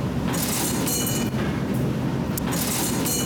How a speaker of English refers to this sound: Let's go down into the subway station where you hear the strangest things.